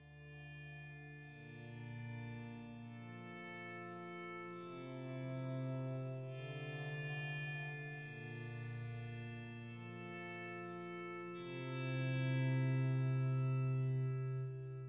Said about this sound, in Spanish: Ahora vamos con la canción de la semana